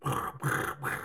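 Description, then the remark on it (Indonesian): A voice imitates a percussive, muted strum of a guitar with crossed strings, three quick, gritty bursts in a steady rhythm, fairly loud, with no other sounds around it. “tuh bunyi kayak cek cek cek cek”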